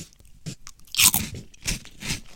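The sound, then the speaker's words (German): Crunching of a rice cracker topped with a spread being eaten: a loud, crisp first bite followed by several rhythmic, crackly chewing crunches, with no talking. “So, dann ähm, nehme ich mir jetzt mal so einen Cracker, wo ich das Zeug jetzt da drauf gemacht habe und probier den mal.”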